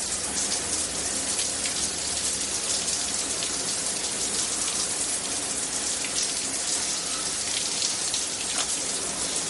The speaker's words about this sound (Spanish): En su casa, Walter se ducha.